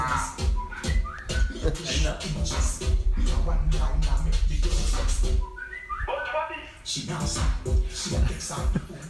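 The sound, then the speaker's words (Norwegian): A bright, whistle-like text message notification jingle of short rising tones plays a couple of times, fairly loud, as someone receives a message, over people talking and some shuffling in the background. “Oi, noen som fikk melding.”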